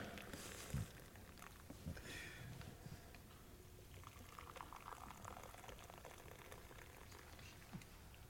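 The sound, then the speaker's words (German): Warm liquid pours and bubbles steadily into glasses, a continuous gurgling splash with a few small clinks, running on for several seconds with no talking. “ich habe uns warmes Wasser mitgebracht.”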